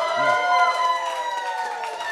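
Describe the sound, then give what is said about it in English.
An audience at the end of a live show cheers and applauds steadily, with whoops and shouting voices layered over a dense wash of clapping that holds at an even level throughout. “Round of applause for Happy birthday.”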